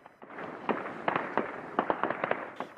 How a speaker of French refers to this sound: Les Russes veulent nous intimider pour que l'on perde notre calme. C'est notre quotidien. Quand il y a des explosions, on se met à terre, puis on se relève.